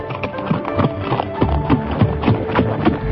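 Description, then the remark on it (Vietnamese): Rapid, rhythmic hoofbeats of a galloping horse, with a rider approaching fast from the north, pound steadily and close by, a driving clatter that holds its pace for a few seconds with no talking. “Tiếng gió ngựa mỗi lúc một nhanh thoáng cái đã gần tới nơi”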